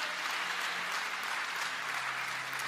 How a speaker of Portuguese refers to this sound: então aplauda o Senhor, isso é motivo de agradecer.